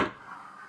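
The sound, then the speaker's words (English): A single plastic clack as a Blu-ray case of the film Interstellar is handed over, with a sharp attack that fades into a short, hollow ring. No one speaks. “Just take this Blu ray. This is the sound of me passing”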